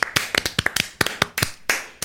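Brief applause from a small group, a quick run of sharp, overlapping hand claps with a bright, crackly texture, fairly loud and without any talking.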